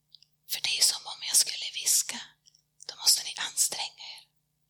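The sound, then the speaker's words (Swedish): A person whispers in two breathy, hissing phrases separated by a short pause, with no voiced speech, soft and airy throughout. “Och det jag sa nu var att det är som att jag skulle viska, för då måste ni anstränga er och komma nära för att höra vad jag har att säga.”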